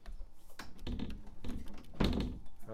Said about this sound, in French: je viens de franchir la porte du local Disparate à Bordeaux